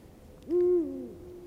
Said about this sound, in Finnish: Tämä on, on ne tossa ne kaikki Nastola yhdeksän. tämä huuhkaja. joka tässä taustalla on.